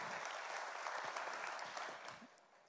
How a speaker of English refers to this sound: And as always, our family at SCI Chester in partnership with God Behind Bars. Let's show them some love, family. Clap for them.